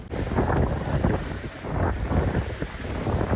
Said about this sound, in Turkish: Bodrum'da etkili olan fırtına nedeniyle karaya vuran dalgaların boyu 3 metreyi aştı.